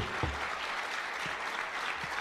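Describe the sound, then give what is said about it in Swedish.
A steady wash of applause from a crowd at a press conference, dense and continuous with a few louder claps standing out, sustained throughout. “Han fick ju väldigt mycket applåder i bakgrunden på den ja. presskonferensen också.”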